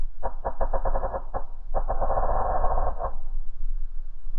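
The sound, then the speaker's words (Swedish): An enemy submarine's hull crushing after a torpedo explosion, as heard by the crew of the submarine Venturer: a quick run of creaking metallic pulses, then a sustained muffled screech and grind for about a second, trailing off into a low rumble. “Och sen följer det där gnisslande, skärande metalliska ljudet som uppstår när en ubåtsskrov skrynklas sönder.”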